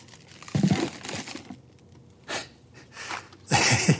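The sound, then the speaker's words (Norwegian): A taped cardboard box is shaken in several rough bursts, its loose contents rattling and scraping inside, with short quiet gaps between shakes. “Men den er teipet igjen, da, men det, det høres ut som tenner.”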